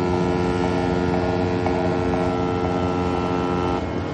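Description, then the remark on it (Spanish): A ferry moving away along a fjord, its engine droning steadily, a deep continuous rumble with a tonal hum layered over it, holding an even loudness throughout with no voices. “El ferry se aleja.”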